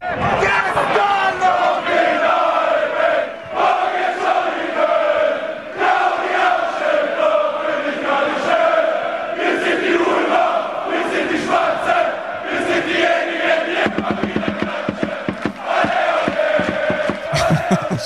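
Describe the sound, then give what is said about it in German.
A large crowd of Ulm football fans chants together in a stadium at a German third-division match, started by a fan on the fence, loud and sustained, with rhythmic clapping or drumbeats punctuating the singing toward the end. “Ulm hat bei Instagram ein Video gepostet, wer auf dem Zaun hängt und wirklich einen Gesang anstimmt”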